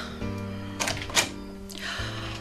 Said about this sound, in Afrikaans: Uh, hoekom klop jy aan die kombuisdeur?